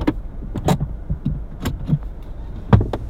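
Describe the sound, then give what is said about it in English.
A car pulls in behind another parked car and rolls slowly to a stop, its low engine rumble steady beneath a series of sharp clicks and soft thumps from inside the vehicle before the engine is switched off; no one speaks. “Pulling in. Getting behind my wife's car.”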